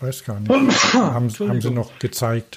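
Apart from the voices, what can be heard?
sneeze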